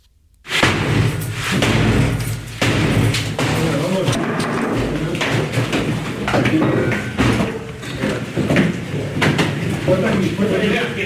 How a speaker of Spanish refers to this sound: Es el momento en el que derribaban la puerta de un piso.